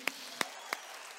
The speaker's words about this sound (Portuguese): Você pode dar um aplauso por essa equipe?